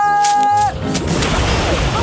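A loud, heavy splash into boiling water as trolls jump in one by one, cutting in after a brief tonal sound, followed by a sustained churning wash of sloshing water.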